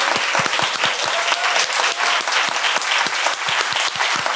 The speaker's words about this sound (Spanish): Le damos un aplauso con mucho, mucho cariño.